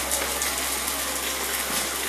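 Light drizzling rain patters steadily in the afternoon, a soft continuous hiss of fine drops with no pauses, moderately quiet, with no voices present.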